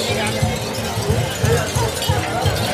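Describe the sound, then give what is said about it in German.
Coins of cash clink and jingle at a market stall in quick, irregular bursts, mixed into a busy background of murmuring voices and crowd noise. “Es klimpert. Und auch das Bargeld hier”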